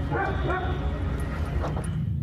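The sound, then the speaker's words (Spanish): A rescue dog of Mexico's Secretaría de Marina (Navy) barks in a few short, sharp bursts against a steady low rumbling background, moderately loud. “Los binomios caninos de la Secretaría de Marina, la perrita Frida, se convirtió en un emblema del rescate de personas y recuperación de cuerpos.”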